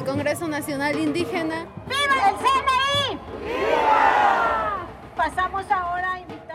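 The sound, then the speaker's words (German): A protest march crowd in Mexico City on 12 October 2023, marching from the Ángel de la Independencia to the Zócalo in solidarity with the National Indigenous Congress (CNI), shouting in loud, rhythmic bursts of overlapping voices, with a sustained roar of many people yelling together in the middle before the chanting picks up again. “Heute, am 12. Oktober 2023, demonstrieren wir vom Ángel de la Independencia zum Zócalo, um uns mit unseren Genossen vom Nationalen Indigenen Kongress CNI zu solidarisieren.”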